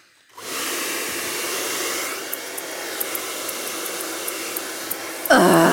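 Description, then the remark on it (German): A hair dryer in a hair salon starts up and blows with a steady, loud whooshing roar, faint crisp clicks ticking over it at irregular intervals, before a brief, different tonal sound cuts in at the end. “Ganz genau, den Friseursalon.”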